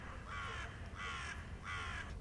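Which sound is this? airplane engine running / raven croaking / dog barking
raven croaking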